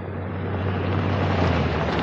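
Vehicles, a car driven by a police officer followed by a truck, drive along a dirt road: a steady low engine drone under a constant wash of rough, hissing road and wind noise, unchanging in loudness, with no voices.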